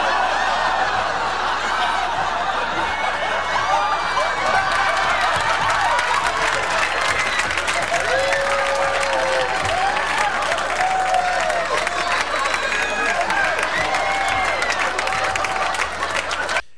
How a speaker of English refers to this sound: The audience is screaming over an outtake.